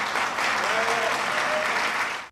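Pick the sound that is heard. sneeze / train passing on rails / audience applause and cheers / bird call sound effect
audience applause and cheers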